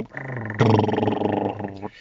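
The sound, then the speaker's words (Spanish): A man's voice imitates a semi-truck engine brake with a loud, rapid, stuttering growl that jumps in intensity partway through, holds for about a second, then cuts off abruptly. “Eso fue un freno de motor de un trailer.”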